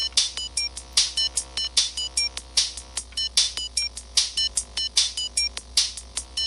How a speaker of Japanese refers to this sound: ちょ、ちょっと、あんまり音流したらいかんか俺だけが聞こえるぐらいの音音楽で音が出おらんあれちょっと音出たんか今